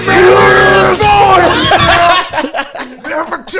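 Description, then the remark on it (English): A man loudly imitates drunken yelling from a song, a strained, drawn-out wavering holler for about two seconds, then breaking into choppy, laugh-like bursts of voice. “it sounds like a white dude yelling at his ex girlfriend in her driveway.”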